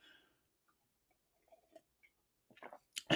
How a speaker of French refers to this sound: Excusez-moi, je prends une petite gorgée d'eau.